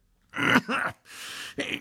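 A close, fairly loud bout of coughing: three or four harsh, throaty bursts in quick succession, the middle one a longer raspy exhale, with no talking.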